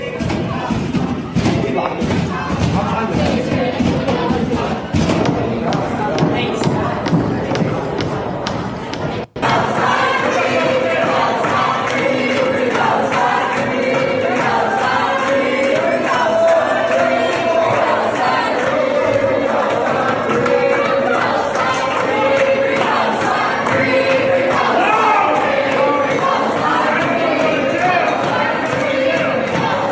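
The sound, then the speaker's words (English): A crowd of pro-Palestinian protesters pounds rapidly and repeatedly on library doors, loud thuds mixed with shouting voices; after an abrupt cut, a dense, noisy crowd keeps yelling and chanting. “They're like literally banging on the doors.”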